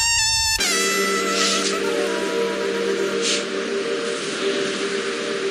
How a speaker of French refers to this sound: C'est le train qui s'arrête en plein chemin sans nulle station, et on entend le grillon